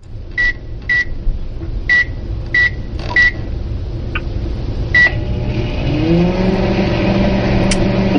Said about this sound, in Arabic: لا لا مو بجهاز مستشفى لا هذا شيء في المطبخ لا آه،, آه اسمع ايه هذا في المطبخ ايه لا لا ميكروويف هذا وشنو وش اسمه؟ ميكروويف